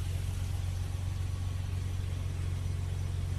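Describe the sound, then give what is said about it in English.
A car engine idles steadily during a police stop, a low continuous rumble with a faint rhythmic throb and no change in pitch throughout. “Turn the car off.”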